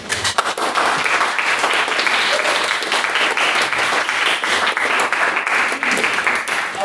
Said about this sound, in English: I would also like to ask that you all give a round of applause for our main speaker this evening